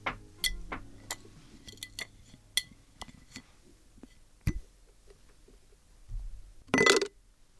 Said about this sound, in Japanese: えー、今日集めた「好き」をまたガラス瓶に入れたいと思います